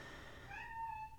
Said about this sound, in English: and now she's meowing. She is so weird